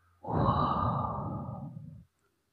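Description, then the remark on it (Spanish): A single slow, breathy exhalation of the kidney healing sound breathing exercise, done with legs, knees and thighs on the floor and knees apart, steady for nearly two seconds before stopping abruptly. No one speaks. “si necesitas más tiempo con esta respiración, puedes en esta posición actual volver a respirar el sonido.”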